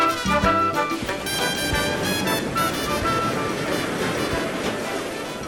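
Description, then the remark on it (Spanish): Steady ocean surf washes against the shore in a continuous, fairly loud roar, with sustained musical tones layered over the water and no voices. “¿qué tanto miras al mar tú?”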